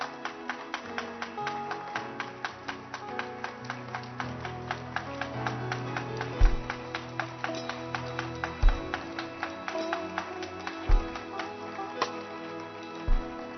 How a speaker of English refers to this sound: Keep clapping your hands for them. Don't stop clapping. You must be excited.